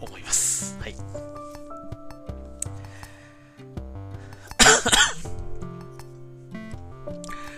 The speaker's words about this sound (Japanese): 相変わらず咳が治らない。